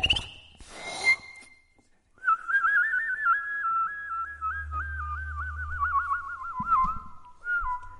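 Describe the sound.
A person whistles a long, warbling birdlike melody imitating a meadowlark, steady, with a low hum droning underneath and a few breathy snorts at the start.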